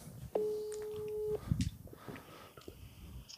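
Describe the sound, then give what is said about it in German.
A single steady phone ringback tone sounds for about a second as a call is placed, clear and fairly loud, followed by soft rustling and faint background noise with no talking. “ich habe jetzt eine Sprachnachricht geschickt, aber vielleicht ja. geht er ja ran.”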